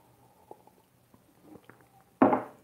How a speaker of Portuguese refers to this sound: Então vou tomar mais um golinho de café aqui.